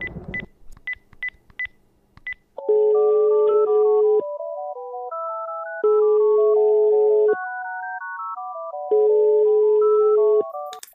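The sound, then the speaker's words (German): A quick run of about six touch-tone dialing beeps as a phone call is placed to the SEK police unit, then a telephone ringing in long, repeated tonal bursts separated by short pauses, loud with no voices. “Deswegen sei nicht irritiert, ich muss jetzt mal kurz telefonieren.”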